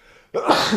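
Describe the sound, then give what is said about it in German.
A single loud sneeze bursts out suddenly after a brief near-silence, a sharp explosive blast of breath with a hissy tail that stops abruptly. “Gesundheit. Und ich kann dir auch zuniessen.”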